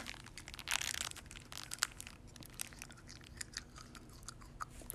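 Close-up, irregular crunching and chewing of ice cream, with a steady stream of crisp crackles and a few sharper bites, quiet overall and with no talking.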